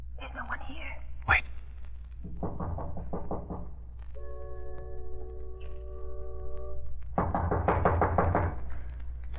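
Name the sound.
knocking on a door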